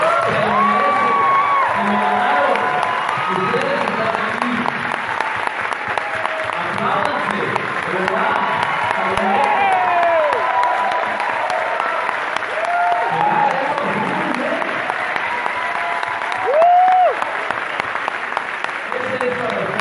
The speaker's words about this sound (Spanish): Y quiero que arranquemos este evento dándonos todos, por favor, especialmente a todos ustedes que están ahí sentados, un pero muy, muy, muy fuerte aplauso, que se sienta porque...